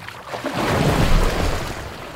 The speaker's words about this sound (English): But before the snake could come up with a clever comeback, Thor's line suddenly snapped in half, and Jormungand fell back into the water with a massive splash.